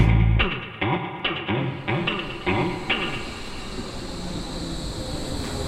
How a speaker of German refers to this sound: Eingefahrener Zug auf Gleis 1, S41 nach Hermannstraße. Die Ringbahn wurde 1877 gebaut. Das heißt, sie ist bald 150 Jahre alt.